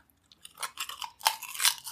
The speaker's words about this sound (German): Es knuspert, es knuspert. Ja, die veganen Burger.